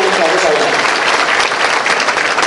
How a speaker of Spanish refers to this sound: Doy un fuerte aplauso a mi esposa